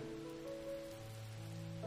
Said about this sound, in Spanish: Podríamos haber esperado unos minutos a que pare de llover